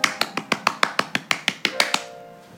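hand clapping

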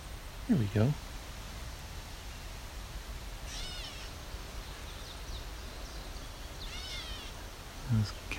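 gray catbird meowing call

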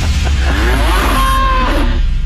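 cow mooing

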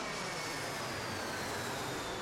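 airplane jet engine

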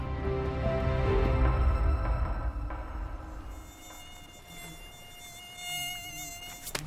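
mosquito buzzing

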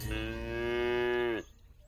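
cow mooing

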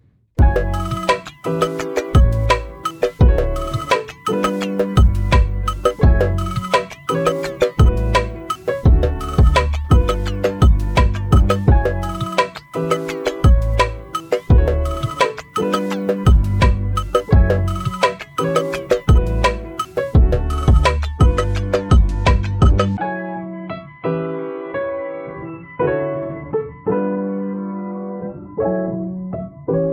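outgoing phone call ringing

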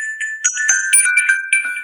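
phone message notification chime

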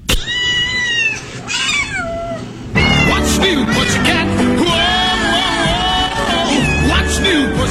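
cat meowing sound effect

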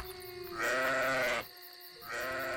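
sheep bleating

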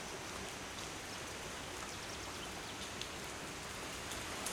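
rain falling

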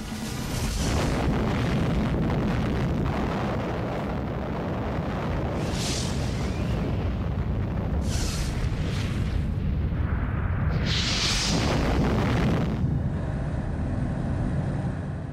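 atomic bomb explosion

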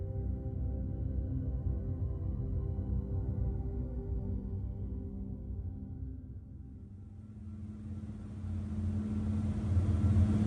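ferry engine rumble

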